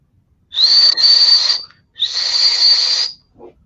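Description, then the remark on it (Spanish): Two long, loud blasts of a ship's alarm whistle, each about a second long with a short gap between, holding one high steady pitch with a harsh, breathy edge. “Se da la alarma de inmediato.”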